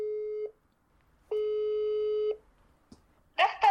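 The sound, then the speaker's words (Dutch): A video call ringing tone, as a video call is placed, sounds in two steady electronic beeps, a short one followed by a longer one, clear, then a brief click and the start of a voice. “Dan gaan we kijken of je ook video kan bellen.”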